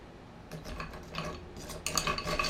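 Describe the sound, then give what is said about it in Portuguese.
Ice cubes clatter into a glass for a caipirinha, a run of bright clinks and rattles that grows louder and busier toward the end, with no talking. “Completar com um pouquinho de gelo.”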